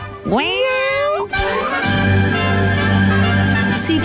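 A single loud, drawn-out cat meow rises in pitch and holds for about a second, followed by a steady tonal music bed with a low hum.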